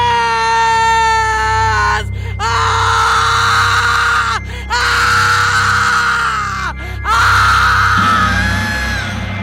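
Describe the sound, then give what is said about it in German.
A ghost woman's long, piercing scream rises and wavers in several sustained bursts separated by brief gasps for breath, loud over a low droning background. “Als ihr Schrei endete, starrte sie ihn funkelnd an.”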